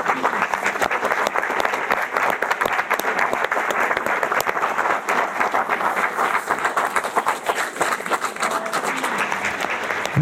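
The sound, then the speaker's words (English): Sustained audience applause after a speaker bows and says goodbye at a morning event: many hands clapping in a dense, steady patter that holds at an even, fairly loud level for the whole stretch without fading or swelling. “Amidst the applause, she turns to an elegant black woman who has been standing in the wings and holds out the mic.”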